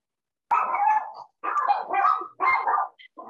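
dogs barking

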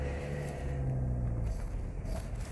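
car setting off

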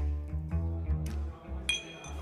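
beer glasses clinking

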